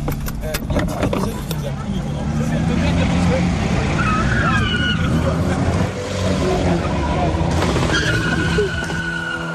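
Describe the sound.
Tuned cars roar and rev with tires squealing and skidding in bursts during an urban street race ('run') in a commercial zone south of Rouen, France; engines are loud, while people's voices and crowd noise mix underneath throughout.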